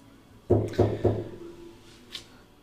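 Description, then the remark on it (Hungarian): Three quick, solid knocks on a door, evenly spaced, with a resonant wooden thud. A brief faint sound follows after a short quiet pause. “Uh, kapogtak az ajtón.”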